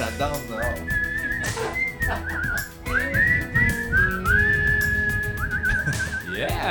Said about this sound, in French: Oh, on siffle?